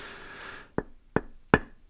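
Three sharp knocks on a piece of cross-laminated timber, evenly spaced in quick succession, following a brief faint hum, with no talking.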